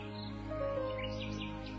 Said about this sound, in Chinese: 忽然有一天，他听到了一只小鸟在树上欢乐的歌唱着，于是呀，他就问小鸟了。